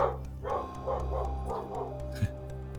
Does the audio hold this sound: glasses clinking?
no